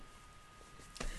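A faint, steady whir of a computer cooling fan hums in the background with no one talking, ending with a brief soft thump.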